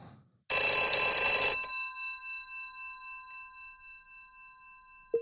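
A telephone rings once during an outgoing call to a person living in Alvdal: a loud, jangling burst about a second long whose metallic tone hangs and slowly fades over the next few seconds, with no talking.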